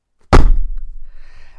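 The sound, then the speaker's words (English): A single heavy thud as a weighty hardback book drops onto a surface, with a dull low boom that fades away quickly. No voices are heard. “I'm going to tell you what the book is in a minute, but this is the sound of it”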